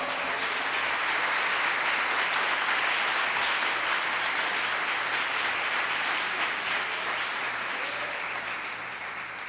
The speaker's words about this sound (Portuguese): Amém? Aplauda o Senhor.